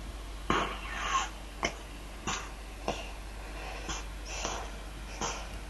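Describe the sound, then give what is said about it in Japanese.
A cat breathes heavily through its nose: eight or nine short, breathy snorting puffs at an uneven pace, separated by quiet gaps, with no voices. “鼻息が荒くなってきましたうん猫かっぽいな猫っぽいね、この後腹ペロってしますお躍動感が伝わってきます、いい音ですね”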